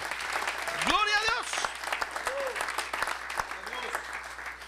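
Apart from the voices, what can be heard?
audience applauding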